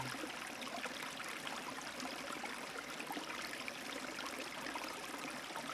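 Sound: flowing river stream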